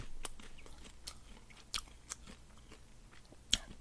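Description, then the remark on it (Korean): Crunchy popcorn being chewed, with irregular sharp crackling bites scattered over a few seconds, a couple of louder crunches standing out against a quiet background and no talking. “어, 팝콘 떨어졌어.”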